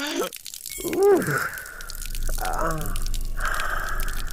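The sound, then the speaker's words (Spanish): A urination trickle sound effect: a drawn-out vocal groan or sigh comes first, then a steady, hissing stream of liquid with faint drips that keeps running to the end. “Este, necesito el sonido de un golden shower.”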